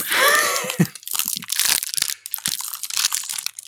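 Crinkling of a wrapper being torn open, followed by a series of sharp, dry crunches as a crunchy chocolate-covered protein bar is snapped and broken apart, with no talking.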